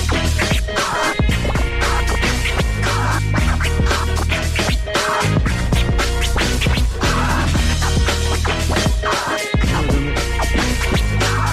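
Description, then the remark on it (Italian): Rapid turntable scratching cuts back and forth over a loud, steady hip-hop beat with heavy bass, the scratches jerky and rhythmic throughout, no voices. “siamo divertiti un po', un po' di scratch, un po' di freestyle.”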